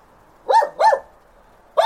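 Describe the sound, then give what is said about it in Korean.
A dog named Jerry barks twice in quick succession, sharp, then starts a third bark right at the end, with quiet background between the barks and no talking. “제리야, 그만 짖어.”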